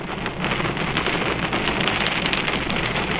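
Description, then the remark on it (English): An Apollo mission rocket engine ignites at liftoff into a loud, continuous roar, a dense rumbling hiss that holds steady and powerful throughout, with no voices present. “We have ignition.”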